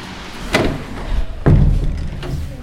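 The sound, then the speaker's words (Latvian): A door of the Rēzekne Catholic secondary school is opened and shut, with a few sharp clunks and knocks of the latch and frame over a steady background hum. A heavier thud lands midway, then a lighter click. “Mēs iesim pa šīm durvīm skolā iekšā jābūt vaļā. Tā, šeit būs tās durtiņas.”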